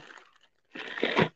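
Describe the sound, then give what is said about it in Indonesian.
Rustling of snack packaging as someone searches for snacks: a brief soft crinkle, a short pause, then a louder second-long burst of crackling and crunching plastic, with no one talking. “Sorry ribut, aku lagi cari cemilan.”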